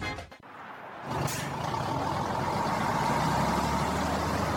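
A tractor-trailer truck engine starts up after a short burst, then rumbles steadily with a broad, hissing roar, like an air brake releasing at the start, loud with no talking.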